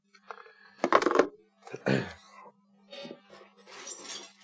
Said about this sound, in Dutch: Die scherven komen, zoals u weet, van de gebroken lampjes uit de kroon.